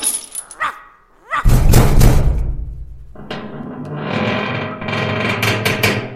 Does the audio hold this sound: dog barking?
yes